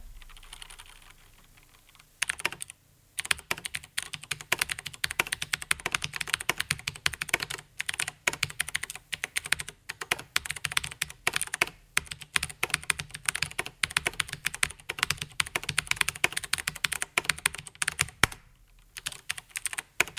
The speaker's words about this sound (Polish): Mm, ja piszę mniej więcej właśnie w takim tempie i, i, i w taki sposób na tej klawiaturze. Mikrofon był e, umieszczony dosyć blisko tej klawiatury, więc e, no, było to zapewne słychać dość głośno.